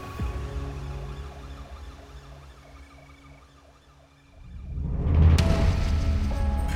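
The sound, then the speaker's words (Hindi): An ambulance siren wails in a repeating rising-and-falling pattern over low engine rumble, then a louder burst of traffic noise swells in and drowns it out toward the end; the ambulance takes a body to hospital after a car hit a person. “उसे वहाँ रोक कर और वो लाश को उठाकर एम्बुलेंस में डलवा के हॉस्पिटल भेज दिया गया”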